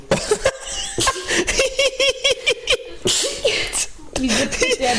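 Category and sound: human body sound, sneeze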